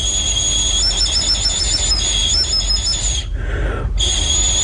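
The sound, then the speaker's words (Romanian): A shrill, high-pitched whistle imitates a kestrel's cry. The rapid, pulsing notes hold steady for about three seconds, break off briefly, then return. It is loud, with no talking. “venea Uliul și venea și prietenul lui Vindereu pentru a speria păsările celelalte”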